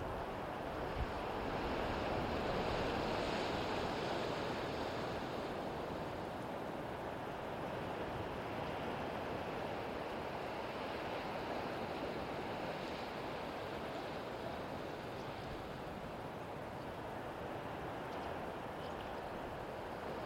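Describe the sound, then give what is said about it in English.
Steady ocean surf washes in continuously with a broad, rushing roar, mixed with gusty wind blowing across the microphone, no voices present. “Being washed and cleansed by the waves.”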